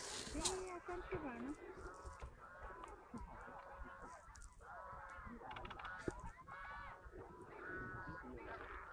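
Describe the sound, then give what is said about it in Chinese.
Twelve mute swans and whooper swans on the lake of phase two of Nanhaizi Park give a steady series of loud, nasal honking calls, overlapping in repeated bursts throughout, with a person's voice heard briefly at the start. “12只疣鼻天鹅、3只大天鹏从远处飞来，在空中盘旋几圈后，降落到了南海子二期的湖中”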